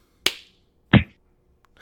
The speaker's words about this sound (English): That's the sound of me clapping my hands, man. It's got just like a weird bassy thud to it. Maybe I'm holding it.